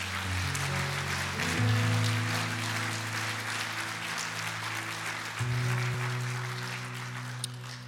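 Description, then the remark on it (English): An audience claps steadily for several seconds during a morning worship service, a dense wash of hand claps for Jesus, with sustained keyboard or organ chords playing underneath. “If you love Jesus, let me hear your hands this morning.”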